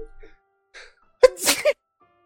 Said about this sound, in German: ich muss mal ganz kurz niesen.